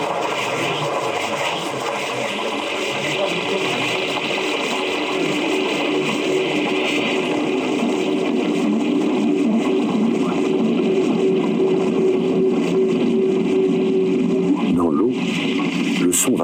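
Deep ocean ambience heard aboard a submarine, 300 metres from the sea surface: a steady, dense wash of hiss and low rumble with a sustained hum and faint creaks, a brief louder knock near the end.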